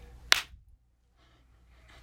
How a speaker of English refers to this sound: we also need to do the clap. Okay. Three, two, one.